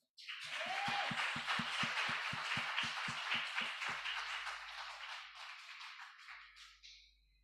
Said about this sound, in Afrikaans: Ons het die paaie probeer maak, maar God het sy eie pad gemaak. Kom ons gee vir die Here net so 'n applous.